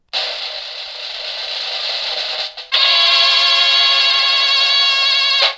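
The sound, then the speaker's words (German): A mechanical cash register rattles loudly through a long cranking whir, pauses briefly, then continues with a brighter, ringing metallic clatter until an abrupt stop. No one speaks. “Die Kasse klingelt.”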